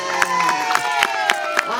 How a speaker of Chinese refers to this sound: 哇！再一次献出大家的掌声，给我们的表演团队热情的掌声。他们呢，用舞蹈，用他们的音乐，传递出龙崎的一个呃情感哦。